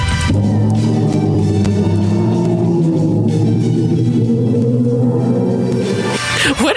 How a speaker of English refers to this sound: A few days ago, NASA released audio from a black hole galaxy cluster called Perseus. Here's what it sounds like.